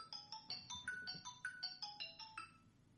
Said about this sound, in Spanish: vuelve a sonar el móvil.